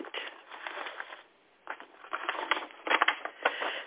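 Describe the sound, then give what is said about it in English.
Crisp rustling and crinkling of a paper letter on decorated stationery being handled and unfolded, in irregular bursts with a brief quiet pause partway through; no one speaks. “This letter is on a beautiful piece of paper.”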